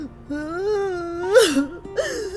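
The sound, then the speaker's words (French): A very large woman wails loudly in a long, wavering moan, then breaks into breathy, gasping sobs, with a second sob-laden cry close behind. “Ses larmes étaient, comme le reste, si grosses qu'en s'écoulant cela faisait des petits ruisseaux qui se perdaient dans son corsage.”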